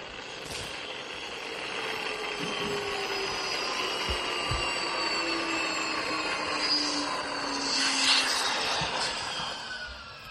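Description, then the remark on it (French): A spaceship engine is started and takes off, roaring steadily with layered whining tones that slowly rise and shift in pitch over a dense rumbling hiss, loud and continuous, with no voices. “vous, vous, vous démarrez ce, moteur.”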